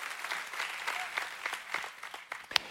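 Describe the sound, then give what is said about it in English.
A church audience applauds in praise of Jesus with dense, steady clapping that holds at a fairly even level, a few sharper claps popping out, and one bright crack near the end. “Come on, we've clapped for a lot of people, but none greater than King Jesus.”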